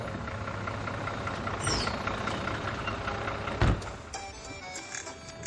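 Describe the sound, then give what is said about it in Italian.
A steady low engine rumble fills the cabin of a moving bus, with a brief whine early on and a sharp clunk partway through, like a bump in the road. Nobody speaks. “Nell'autobus il tempo non passa mai e cerco di fare qualsiasi cosa pur di non annoiarmi.”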